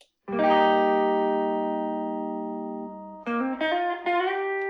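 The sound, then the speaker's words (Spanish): An electric guitar rings out a long sustained chord, then plays a few quick notes, washed in room reverb made by playing the guitar back through speakers, re-recording it with a microphone placed behind, and mixing that in as natural room reverberation. No one speaks. “Y entonces, como eso no me gustaba, como sonaba, lo que hice fue que la saqué por las bocinas, puse el micrófono atrás y regrabé ese micrófono y lo mezclé de nuevo como si fuera la reverberación natural del cuarto y termino sonando así.”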